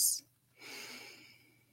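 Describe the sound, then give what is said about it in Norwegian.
A single deep, audible inhale drawn in slowly over about a second, soft and breathy, during a guided breathing exercise, in an otherwise quiet setting. “Puster inn alt lys.”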